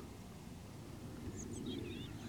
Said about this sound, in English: It's very still. There's not much wind. The water's very still. There's just lots of boats just all moored up. Quiet stillness. You can hear the birds.